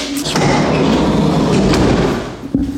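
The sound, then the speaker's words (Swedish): A truck's cargo door is swung shut, with loud metallic clanks and a few sharp thuds over a steady rattling rumble. “Och så, och så bommar vi igen den här dörren va?”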